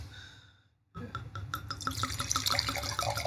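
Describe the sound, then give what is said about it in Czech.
Merlot wine is poured into a glass after a brief hush, a steady splashing stream with bubbly glugs whose pitch creeps upward as the glass fills. No one speaks. “Tak hele, já ti dám medlot a uvidíme.”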